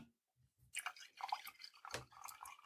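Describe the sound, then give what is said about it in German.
Hot coffee being poured into a cup, a wet, splashing trickle that starts after a brief pause and runs in uneven gurgling bursts, with no talking. “warte, ich gieß mal noch”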